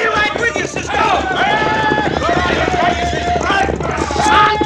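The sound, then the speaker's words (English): A loud, continuous rush of many galloping hooves, a dense drumming stampede of mules turned out of a corral into a camp, with shouting and yelling voices riding over the clatter throughout. “Cisco is a stampede.”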